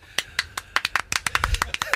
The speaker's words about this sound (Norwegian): Gjestene klapper inn programlederen.